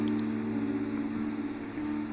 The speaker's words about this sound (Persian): دوباره باران گرفت